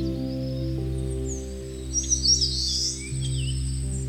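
Several birds chirp and trill in quick, bright bursts over a steady low hum by a lake, the calls clustering briefly in the middle and otherwise faint.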